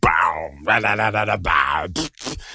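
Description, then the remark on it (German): A voice imitates a dubstep wobble bass, with growling, pulsing vocal tones that bend up and down for a couple of seconds, ending in short sharp bursts, loud. “wann wurde das zu, zu Dubstep-mäßig mit …?”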